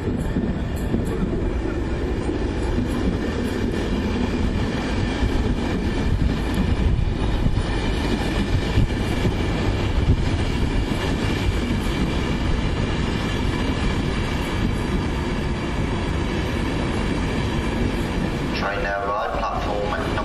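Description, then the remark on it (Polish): A train rolls along the rails, a loud, steady rumble with rattling that holds for about eighteen seconds before the sound shifts and thins at the end. “E, na razie czekam na pociąg.”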